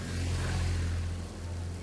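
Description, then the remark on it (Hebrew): A heavy bus engine rumbles with a steady low drone, holding even for a couple of seconds as the bus pulls away, moving only by the power of its engine. No one speaks. “האוטובוס נוסע רק בכוח של המנוע שלו, בלי קשר לשרירים של אף אחד.”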